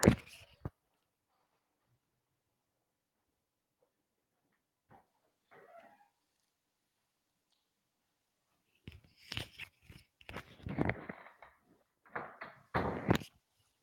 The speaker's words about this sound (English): Could you close the door?